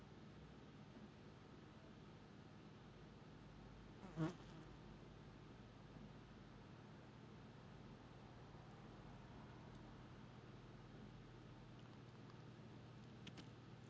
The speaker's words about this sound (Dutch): En af en toe hoor je een bij of een vlieg voorbij komen.